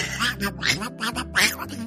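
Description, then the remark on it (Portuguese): A person imitates a duck with several nasal, raspy quacks in a quick, uneven series, fairly loud, with no other talking. “você faz bem, você imita bem, cara.”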